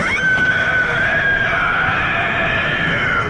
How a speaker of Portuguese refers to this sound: Cara, é muito parecido um berro agudo, bestial, assim, sabe? É verdade. O Bloodborne eu, eu não joguei assim, então eu não, não conheci o grito da criatura, mas ele tem uma vibe meio Lovecraftiana também.